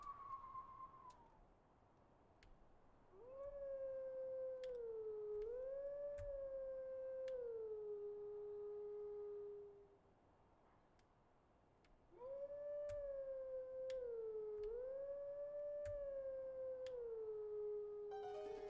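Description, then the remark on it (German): A video-game wolf howls a short melodic lullaby tune twice at a gravestone, each phrase a long sustained tone stepping up and down in pitch, loud and clear, with a brief quiet gap between and no talking. “Es ist Zelda's Lullaby aus Ocarina of Time.”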